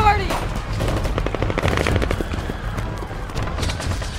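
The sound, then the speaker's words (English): Rapid bursts of gunfire crackle continuously from all directions, overlapping shots of differing loudness suggesting many shooters at once, with a low rumble underneath and an early high-pitched whine. “Gunshots came from all directions.”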